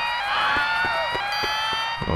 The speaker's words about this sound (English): Oh no! What a shame the fire alarm has gone off. We must evacuate immediately!